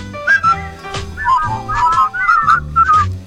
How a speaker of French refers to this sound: Always look on the bright side of life. siffle, hein.